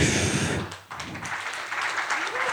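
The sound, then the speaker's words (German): An audience in Kriens bursts into steady applause, a dense wash of many hands clapping, with voices mixed in underneath and a brief dip before the clapping picks up again. “Moment, noch nicht klatschen.”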